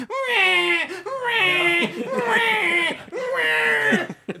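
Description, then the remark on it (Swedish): A person imitates a screaming, crying baby with four loud, drawn-out wails in quick succession, each separated by a brief catch of breath, continuous. “alternativet är en skrikande unge så vad vill du ha?”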